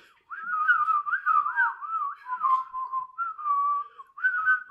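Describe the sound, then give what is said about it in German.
Someone whistles a wavering, melodic tune, the pitch gliding and warbling in continuous phrases with brief breaths between them, and no talking over it. “Wollen wir, wollen wir kurz was pfeifen, um ja. zu beweisen, dass wir cool sind?”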